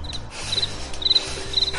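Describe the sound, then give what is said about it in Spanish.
Crickets chirp in short, high trilling bursts that repeat at a steady pace, fairly soft and set against a low, continuous background hum. “no, he dicho, nada por lo grillos, ¿sabes?”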